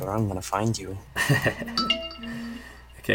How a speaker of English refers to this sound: you might hear some messages in the background. Uh, that's somebody sending me some stuff when they are not supposed to. So sorry about that.